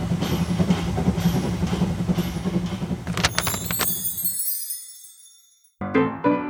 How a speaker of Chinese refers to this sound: 就在这时呀，火车竟然开动了！